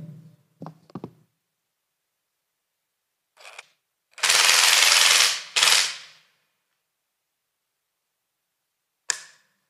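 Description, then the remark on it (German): A power tool that is not an ordinary drill runs in two loud bursts of harsh, rattling whir, a long one then a short one, with a few handling clunks before and a sharp click afterward. “Dieses wunderbare Gerät. Das ist keine normale Bohrmaschine.”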